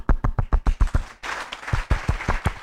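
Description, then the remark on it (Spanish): A church audience claps together in a steady, even beat, about eight sharp claps in a row, then swells into fuller, noisier applause that still keeps a rhythmic pulse, applauding the Lord. No one speaks. “Y como estoy nerviosa, entonces usted me va a aplaudir un momentico así.”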